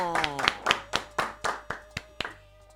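Brief applause: about ten sharp, crisp hand claps at an even, brisk pace, moderately loud, with a voice trailing off as the clapping begins.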